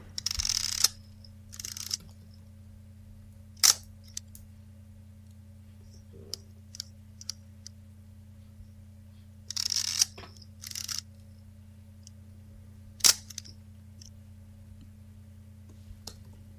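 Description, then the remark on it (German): A Zeiss Icon Contaflex 126, a single-lens reflex camera for 126 cartridge film from 1967 to 1971, releases its shutter several times at irregular intervals, sharp mechanical clacks interspersed with brief whirring winding sounds over a quiet steady hum, with no voices. “Eine Zeiss Icon Contaflex 126. Es eine handelt sich um eine oh. Spiegelreflexkamera für 126er Kassettenfilme, die von 1967 bis 1971”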